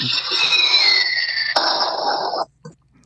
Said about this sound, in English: That sounded. what the hell was that? That was a really poor bomb. Sounded more like a firecracker.